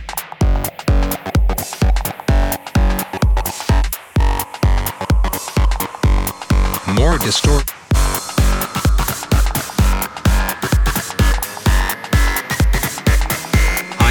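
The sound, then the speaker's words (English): Loud electronic music with a heavy, gritty distortion effect saturating the whole mix, driven by steady pounding kick beats at a fast, even pulse. No one speaks. “Now, we need some fat distortion.”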